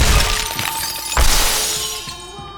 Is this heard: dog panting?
no